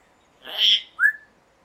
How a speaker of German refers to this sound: An der Leine ist kein Hund. Das ist ein Papagei. Sie führt einen Papagei an einer Leine spazieren. Wie einen Hund.